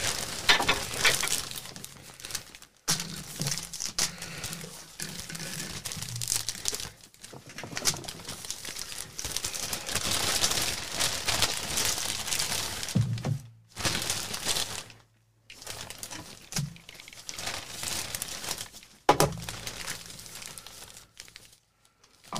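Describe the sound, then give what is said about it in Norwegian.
Candy bags rustle and crinkle almost continuously in bursts of crackling noise, with a few short pauses between handfuls. No one speaks. “Jeg hører det rasler i påser.”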